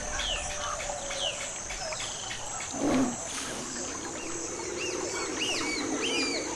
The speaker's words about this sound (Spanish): Oigo a los insectos, a los animales. abuelo. La selva me da miedo. La selva grita como un monstruo.